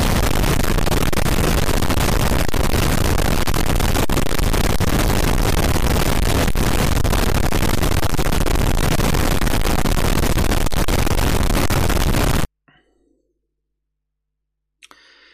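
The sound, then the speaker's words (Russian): A dense, loud barrage of fireworks set off at night by villages crackles and bursts nonstop for about twelve seconds, a harsh wall of popping noise that cuts off abruptly, followed by near silence and a brief final burst. “Э, прошлой ночью все деревни запускали салюты в честь начала нового сезона подкастов Константина Кадавра.”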